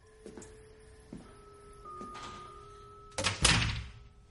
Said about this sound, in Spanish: Gus cierra la puerta.